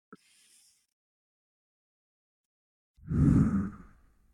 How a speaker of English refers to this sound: Again, in through the nose, hold to the top, breathing into the diaphragm and the belly, and then exhaling just a little bit longer.